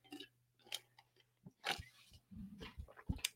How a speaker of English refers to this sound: So uh, with that said, first of all, I'm parched, so I get, need to get a sip of my water here.